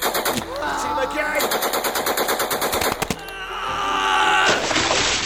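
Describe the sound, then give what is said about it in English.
Rapid bursts of Sten submachine gun fire rattle out in quick, evenly spaced shots, loud, from soldiers charging towards a bridge over the Caen Canal while throwing grenades, with a sharp blast near the middle and some shouting voices mixed in. “They were followed by Howard's men firing their Sten guns and throwing grenades as they charged towards the bridge.”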